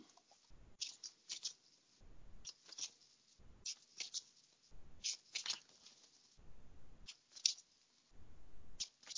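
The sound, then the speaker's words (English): A deck of tarot cards being shuffled for a reading, with a steady series of crisp, papery riffling bursts separated by brief pauses, moderately loud and with no talking. “Right, so now I'm shuffling for those of you who can't see.”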